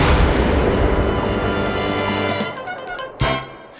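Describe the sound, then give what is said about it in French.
Dynamite sticks exploding in a rolling series of deep booms, the rumble fading before one last sharp blast cracks out near the end and dies away. “On va faire péter ensemble quelques bâtons pour calmer les nerfs.”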